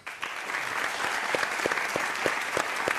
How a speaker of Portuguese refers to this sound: Podem aplaudir o pastor batista Henrique Vieira